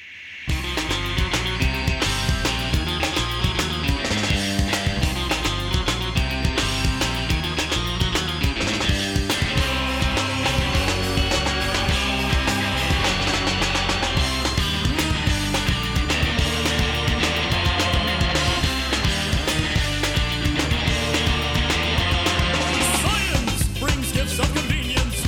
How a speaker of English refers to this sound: in the beginning, the drums are gnarly, man.